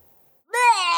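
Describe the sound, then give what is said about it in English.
After a short silence, a single loud, drawn-out cat meow begins abruptly and holds steady, with nothing else in the background. “Oh, there it is. There's the At sound.”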